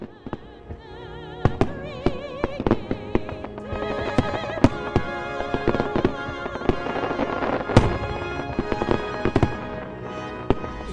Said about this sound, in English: so the big draw on Saturdays at, at Sailfest is uh, the fireworks.